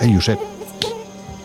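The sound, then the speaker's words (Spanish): A thin, steady whine of a mosquito on someone's face hums through the whole moment, with a short burst of voice at the start and a light tap partway through. “Tenías un mosquito. En la cara.”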